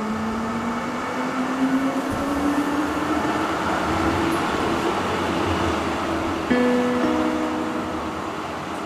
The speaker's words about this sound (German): Unser Weg führt uns jetzt weiter zur S-Bahn, die Richtung Stadelhofen fährt.